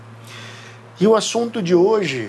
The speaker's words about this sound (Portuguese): Eu vou começar já me desculpando pelo barulho de fundo aqui, porque simplesmente está calor demais e não dá para desligar o ventilador. Mas enfim, espero que não atrapalhe muito aí para vocês me escutarem.